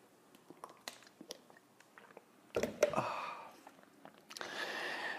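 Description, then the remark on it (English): Quiet mouth sounds and small wet clicks lead into a louder slurp, then a sustained airy sip near the end, with no talking. “And join me now for the unparalleled pleasure of the dopamine hit of the day, the actually the second dopamine hit of the day the thing that's going to make everything a little bit better still, it's a simultaneous sip.”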